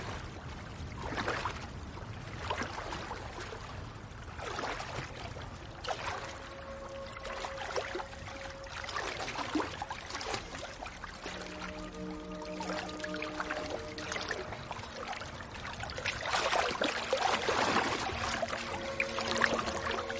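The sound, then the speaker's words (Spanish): A slim man wearing only briefs slowly wades and bathes in a lake, with irregular sloshing bursts that swell louder toward the end, and faint steady tones humming in the background. “se baña en un lago cercano.”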